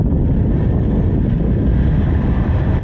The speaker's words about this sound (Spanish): En la calle de Staten Island, los camiones de basura como este pasan.